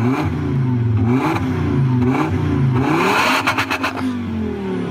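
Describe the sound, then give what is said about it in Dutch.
A classic Volvo car engine revs repeatedly, its low harmonic drone rising and falling in pitch with each push of the throttle, loud and steady, ending in a burst of rapid clattering pulses. “Typisch Volvo.”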